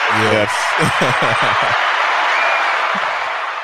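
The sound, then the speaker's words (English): A steady, loud wash of applause runs through the whole clip, dense and crackling, with a voice talking over it during the first couple of seconds. “Can, is it like a, is that an applause thing we can can you hear that?”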